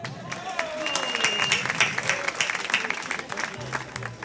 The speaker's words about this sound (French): Mais la personne qui a le numéro 6 peut venir prendre son t-shirt. On l'applaudit, hein.